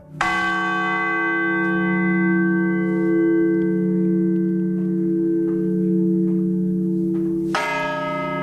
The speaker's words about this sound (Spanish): El repique de campanas puede servir para avisar a la población de catástrofes naturales como incendios e inundaciones, del comienzo de actividades lúdicas, del anuncio de decretos y noticias. Las campanas no suenan igual en todos los sitios.